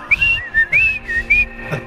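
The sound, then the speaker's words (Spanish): A person whistles a short, bird-like call: several quick chirping phrases with rising, high-pitched slides, clear and fairly loud, with no talking over it. “Él va a llegar a comunicarse en forma de pajarito.”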